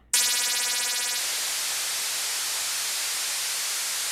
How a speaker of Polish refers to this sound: Aha. To przerwę, bo to jest naprawdę nieprzyjemny dźwięk. Mm. I ten dźwięk, po prostu ten szum, to jest coś, co sobie on jakoś procesuje dla siebie i on to na siebie, na swój backup zapisuje.